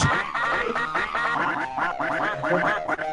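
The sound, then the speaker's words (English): Repeated nasal duck quacks in a fast, rhythmic stream, loud, layered over a steady musical backing in an extended Sparta remix, with no one talking. “Now CJ's got random ducks.”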